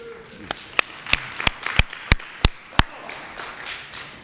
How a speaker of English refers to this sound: Now, yeah, amen. Give Jesus a clap. Come on now.